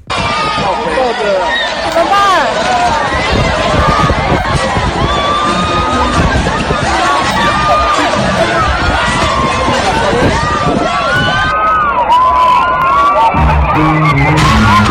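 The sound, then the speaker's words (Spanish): A crowd in a park screams and shouts continuously outdoors in terror as a girl is carried into the air by a kite for 30 seconds, many overlapping voices rising in alarm, loud throughout with constant dense yelling and no pauses. “No, no, Aquí tenemos, porque podemos escuchar los gritos de, de la gente, cómo reacciona en el parque.”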